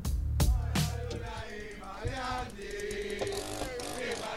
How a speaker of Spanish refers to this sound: Eso es una motosierra. Alguien fue a recibir al Diego con una motosierra.